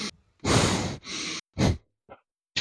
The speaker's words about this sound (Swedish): Om vi gör så här istället då? Näsflås.